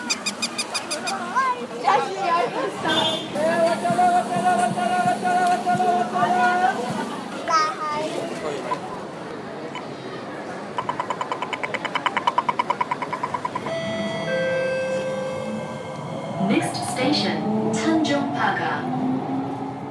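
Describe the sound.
Busy urban ambience recorded on a sound walk in Singapore: a steady wash of crowd chatter and children's voices, with high squeaks, tonal beeps and passing machinery layered in at moderate, constant loudness.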